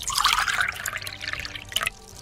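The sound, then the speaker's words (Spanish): Liquid sloshes and gurgles inside a bottle being shared, moderately loud, in a couple of quick uneven bursts over about two seconds, with no voices. “Compartir una misma botella.”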